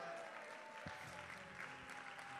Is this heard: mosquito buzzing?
no